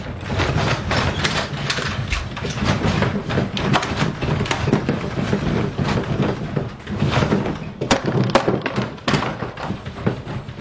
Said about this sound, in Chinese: 可是乖乖，接下来要麻烦你来体验一下地震八级的时候的声音，八级哦。因为这一次土耳其的地震是七点八级，所以八级的地震的声音跟土耳其这一次的地震差不多是同样级别的。